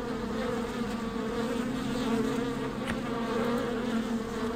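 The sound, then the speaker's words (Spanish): A steady, droning buzz of flies or bees fills the whole clip, a dense hum with sustained low tones and shimmering overtones that waver slightly in pitch, with no voices present. “O abejas, no sé qué son.”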